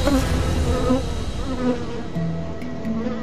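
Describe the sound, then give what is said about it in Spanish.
A bee buzzes steadily for a few seconds, its drone wavering slightly in pitch as it hovers around, with no voices present. “porque aunque midas 2 metros y peses 5.000 veces más que una abeja promedio, te puede dar estrés que te persiga una abeja, más si sos alérgico.”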